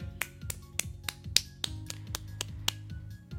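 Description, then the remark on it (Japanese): Around ten crisp hand claps celebrating the announcement of a collaboration on a radio-style stream land in a steady, fairly quick rhythm, each a sharp bright snap, over soft low background music with no one speaking. “拍手”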